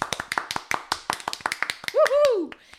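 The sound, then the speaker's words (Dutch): Brief, scattered clapping from a few pairs of hands, applauding a listener who won the pool: about two seconds of sharp, irregular claps, ending in a short, falling vocal whoop. “Oh, nou, eh, applaus. Applaus.”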